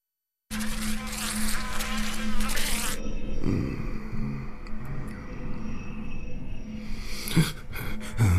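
A white fly buzzes steadily for several seconds, its droning hum wavering slightly in pitch, with faint background noise and no voices.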